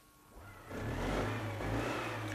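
A car engine revs up, swelling from a low idle into a loud, steady roar that holds for a couple of seconds, with no voices.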